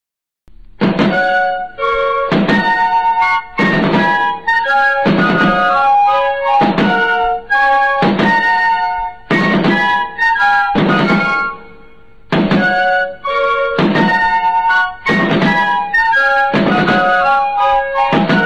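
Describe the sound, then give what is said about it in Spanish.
A brisk military march, the Marcha de Granaderos, played by an ensemble from its original score, with bright harmonic melody lines over punchy, regularly accented chords in a steady strong rhythm, loud throughout with no voices. “Bueno, en principio vamos ah, vamos a escuchar la marcha de Granaderos, lo que es su partitura original.”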